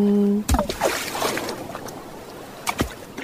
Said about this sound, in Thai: เอาเสียงคลื่นที่หาดทรายแก้ว เข้าเครื่องแปลภาษาเขาคงจะบอกเราว่า มาเที่ยวที่นี่สิ หาดทรายขาวน้ำทะเลใสรอคุณอยู่